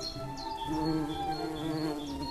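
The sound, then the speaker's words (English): A steady, layered buzzing hum of bees and insects fills the scene continuously, with faint higher chirps and whistles drifting over it. “Hum of bees and insects.”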